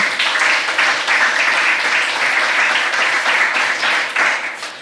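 Sustained applause from an audience, a dense, steady wash of many hands clapping at once, fairly loud and close, continuing evenly for several seconds with no voices.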